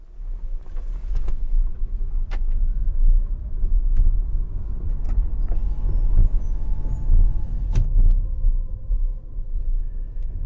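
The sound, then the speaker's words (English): A quiet electric car pulls away slowly and drives along a small windy road, with a soft motor whir over steady low road rumble and tyre noise, plus a few brief knocks from bumps, heard from inside the vehicle. “But as you can hear, it's a bit of a whir of the engine, but pretty quiet really.”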